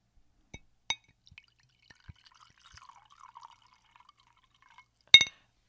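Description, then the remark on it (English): Sake is poured into a glass, a soft trickling gurgle bracketed by a few sharp glassy clinks, with one louder clink near the end. Quiet, no talking. “I'm pouring some sake.”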